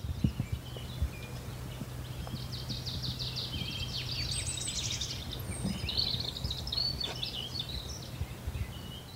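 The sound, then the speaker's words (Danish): A blackcap sings outdoors, a rapid run of clear, bright whistling notes in a few bursts, over a low steady rumble of background noise. “og munk inde ved den der hurtige, klare fløjtetoner.”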